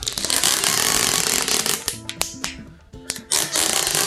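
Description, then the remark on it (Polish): Adhesive tape is pulled off the roll in a loud, rasping screech, then a few sharp crackles and a short pause before another strip rips free as a second layer of tape is applied. No one speaks. “Jeśli starczy taśmy, to dawaj dwie.”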